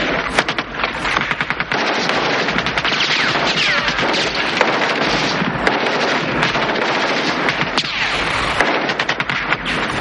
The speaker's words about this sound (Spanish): Empiezan a disparar hacia la zona de la que provienen los disparos. cruza el camino bajo los tiros de ambos bandos.